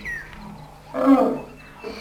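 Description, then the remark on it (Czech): A strong, agitated bull elephant that has caught a scent stands and lets out one deep, rough rumbling growl, loud, swelling briefly and fading, with faint quieter animal noise around it. “Je to silný sloní samec. Už na větří. Už to stopy. Samce proto je tak rozčílený. Zatím ještě stojí a mručí.”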